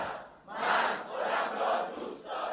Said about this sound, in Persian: این همون عبارته که من گفتم ولی فرق داره الان معنیش فرق کرد تک تک شما الان سه بار گفتید من خودم رو دوست دارم